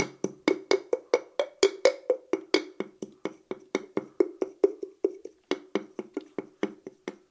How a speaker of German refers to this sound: Jetzt tue ich es ins Wasser. Es klingt so. Wenn man die Kokosnussschale umso mehr ins Wasser tut, dann verändert sich der Ton auch viel mehr